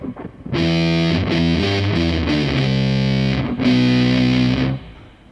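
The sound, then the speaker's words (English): Thick, heavily fuzzed electric guitar plays a short run of sustained single notes, loud, with an octave-up signal and a slight octave-down layer thickening each note before it cuts off. “It will also have a signal an octave above and a little bit an octave below”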